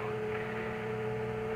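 A steady electric hum from generators building up power to supply a motor by remote control, droning continuously at an even level with strong low tones and a bright sustained whine, no voices present.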